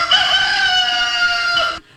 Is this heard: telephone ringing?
no